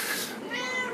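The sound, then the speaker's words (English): A single drawn-out meow from a cat named Tinkerpot, fairly loud, with a bright, slightly strained tone that rises and then trails off over about a second, heard on its own without talking. “That's my cat's name, Pots,”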